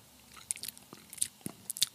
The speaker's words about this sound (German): Wer kaut mit offenem Mund, Alter? Wer, wer kaut, ich. Entschuldigung, wer kaut mit offenem Mund?